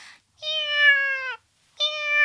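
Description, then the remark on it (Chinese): A voice imitates a cat meowing twice, as Heidi the cat groans and cries while stuck in a door hole: a long, drawn-out, slightly falling meow, then after a pause a second one rising in intensity, both loud and harmonic-rich. “喵！他呻吟着，叫喊着，喵”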